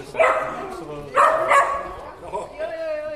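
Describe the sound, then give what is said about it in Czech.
A smooth-haired dachshund hunting dog named Šarm, about 14 months old, barks and yelps in a few short, high-pitched bursts spread over a few seconds, with some whiny, drawn-out tones between them. “Je to jezevčík, hladkosrstý?”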